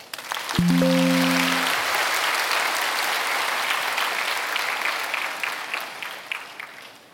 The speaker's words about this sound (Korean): 예, 찬양 감사합니다. 박수 한 번 하십시오.